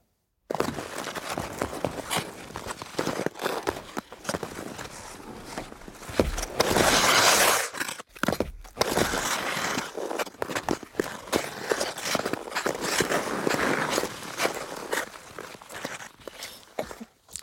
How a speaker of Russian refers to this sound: Коньки невозможно записать на синхронных шумах. Невозможно сымитировать. То вот, что мы видели, да, катается человек на коньках, едет.